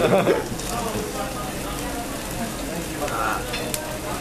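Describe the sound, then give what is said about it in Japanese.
Meat sizzles steadily on a yakiniku grill at a yakiniku restaurant in Shibuya, a dense crackling hiss filling the whole stretch with small pops, fairly loud, while faint voices murmur in the background. “これ8割ぐらいに10って音しか聞こえてない間違いない”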